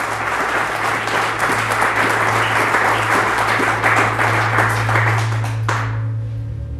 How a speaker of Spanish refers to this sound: Si le vas a aplaudir, apláudele fuerte a nuestro Dios.